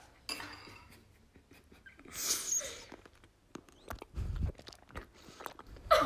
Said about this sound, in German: Okay, kurzes ASMR, wie ich kaue. Du kaust nicht beim Müsli. nee, ich kann doch trotzdem kauen.